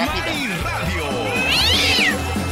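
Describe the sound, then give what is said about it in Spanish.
A cat gives a loud, drawn-out meow that rises and then falls, close by, while people talk underneath throughout. “Dígale al gato que nomás yo para eso, Viva de México.”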